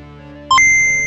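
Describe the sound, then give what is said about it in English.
The calculating computer on the game show Game That Tune being switched on for scoring: quick high-pitched electronic blips rising in pitch, then a sustained tone holding steady over a low humming background, loud. “If there's if there's nothing else, then we, sadly we need to turn on the calculating computer, the cleansing computer in this uh, this episode.”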